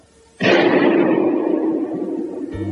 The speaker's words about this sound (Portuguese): e a gente tem um tiro.